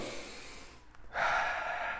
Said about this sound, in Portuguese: Então, tem que fazer um trabalho aí de respiração, tá? Vamos fazer comigo aqui, ó.